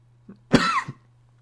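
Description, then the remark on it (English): A single short, throaty cough, with a brief breath before it and a small grunt after, over a faint steady low hum. “It doesn't matter whether I need to cough or not.”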